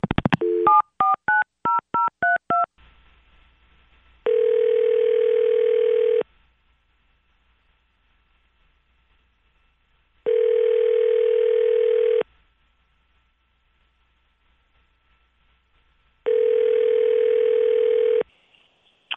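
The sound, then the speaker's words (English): A quick run of about eight touch-tone dialing beeps as Q102 Radio hosts call a listener, then a telephone ringback tone sounding three times, each ring about two seconds long with several-second silent gaps between. No one speaks. “And unless there are any important details that we miss, we're just going to go ahead and call her up.”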